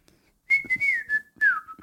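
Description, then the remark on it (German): A person whistles a short melody, clear tonal notes gliding and stepping in pitch across a few phrases, with no talking. “Was habe ich gerade gepfiffen, ist die Frage.”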